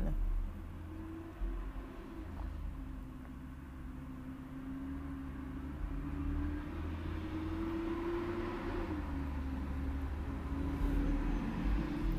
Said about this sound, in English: can hear all the trucks and buses and bass.